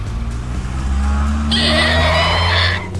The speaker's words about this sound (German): Die Reifen quietschen auf dem Beton und mit Rechts- und Linksbewegungen versucht er nicht nur das Fahrzeug in Schwung zu bringen, sondern auch den immer wieder auf das Fahrzeug einprasselnden roten Bändern auszuweichen.